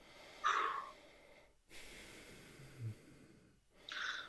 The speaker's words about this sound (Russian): надо дышать. Вот сейчас сидите и терпите.